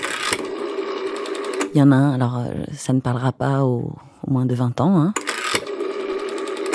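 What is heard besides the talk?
rotary telephone dial turning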